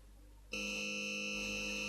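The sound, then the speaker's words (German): After a brief quiet moment, a doorbell's harsh electric buzz starts abruptly and holds steady and loud, ringing without a break as the bell button at a company's brass nameplate is kept pressed. “hielt Barbara den Klingelknopf am Messingschild der HPE GmbH gedrückt”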